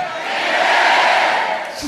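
An audience shouts amen together in one loud, sustained roar of many voices that swells, holds steady for nearly two seconds, then starts to fade.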